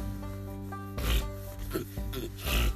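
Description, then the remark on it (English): Four or so harsh, raspy nasal snorts from a person, fairly loud, come in quick succession, sounding like a pig's oink, over a steady low hum in the background. “Damn, I sound like a motherfucking oink oink in this bit.”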